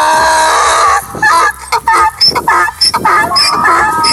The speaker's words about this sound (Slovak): A mali by ste vedieť, že aj oslica môže mať astmu. Sice nevieme, ako na to človek presne príde, lebo tak sa nám zdá, že každý osol znie tak trochu, ako keby mal astmu, veď aha.